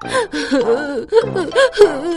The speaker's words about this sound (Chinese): 可妈妈还是一个劲儿的哭，呜 妈妈，我给你捶肩，求求你别哭了。 松鼠妈妈还是不停的哭